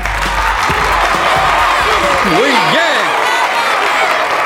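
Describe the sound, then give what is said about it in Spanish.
A crowd applauds for Jesus at an assembly in a steady, dense wash of clapping that lasts the whole moment, while a man's voice speaks over it with rising and falling tones. “Un aplauso para el Señor Jesús está presente.”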